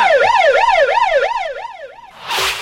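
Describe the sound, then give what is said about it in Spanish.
A loud police siren warbles alone in quick, steady rising-and-falling sweeps, roughly eight cycles, before cutting off into a brief burst of harsh hissing noise. “Venga, de eh, la chota.”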